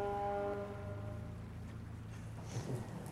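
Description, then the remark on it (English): A loud, sustained horn blast with a steady droning tone, like a ship's horn, holding for several seconds and echoing across the dark night sky as it fades. “Blow your horn if I'm right. Charlie waits a moment, as if contemplating then blows loud. It echoes across the dark skies.”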